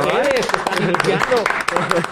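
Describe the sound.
Brief applause, dense overlapping claps crackling steadily for a couple of seconds, with voices calling out or laughing over it.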